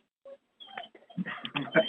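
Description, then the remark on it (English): A dog whimpers in short, high-pitched, nasal whines, starting with one brief cry and then a rougher, more continuous run of whining. “Uh, poor dog. Whose dog is that?”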